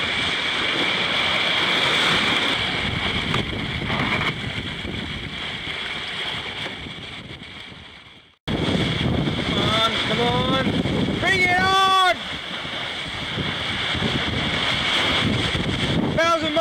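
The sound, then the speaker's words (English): A sailboat under an asymmetric spinnaker surfing quickly through waves out at sea, with loud, steady rushing water and buffeting wind, a brief cut midway, and a short rising vocal whoop. “it's great how this boat trims bow up because of the asymmetric spinnaker and the uh, the length of the bowsprit.”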